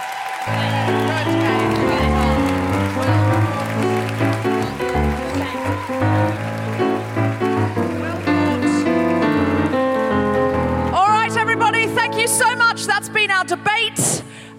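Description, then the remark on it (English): Steady audience applause for the speakers at a live debate of The Guilty Feminist, a dense crackle of many hands clapping, runs underneath loud music for the whole stretch, with the music turning into a sung, voice-like melody near the end. “And uh, one more round of applause for our speakers Felicity Ward, Reubs Walsh, Catherine Bohart, Deborah Frances White, Titley, and Nish Kumar.”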